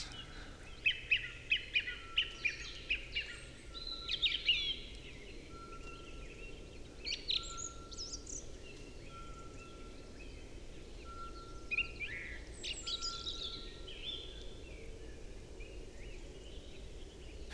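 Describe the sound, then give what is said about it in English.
A Eurasian pygmy owl repeats its single whistled tone song at steady one-second intervals, fairly faint, at night, captured by a recorder placed around a lek, while other birds chirp briefly over a constant hiss of background noise. “you can hear in the recording a beep or a tone that might sound like an alarm.”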